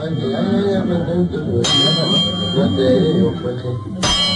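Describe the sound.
A clock bell strikes four o'clock in the afternoon with loud, resonant clangs, two strikes spaced a few seconds apart, each ringing on and fading, over a murmur of voices in the background.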